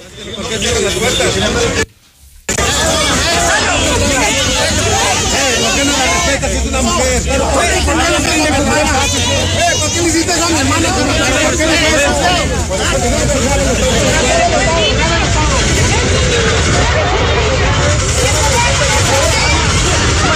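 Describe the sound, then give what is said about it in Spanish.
A dense, noisy crowd pushes, scuffles and shouts on the esplanade of the Ministerial Police, with overlapping shouts and raised voices churning continuously, broken only by a brief silent gap near the start before the chaotic din resumes. “Y eso es parte de lo, que se vivió en la esplanada de la Policía Ministerial, eh, empujones, roces y gritos.”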